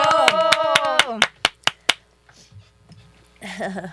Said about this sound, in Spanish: Démosle fuerte ese aplauso de bienvenida.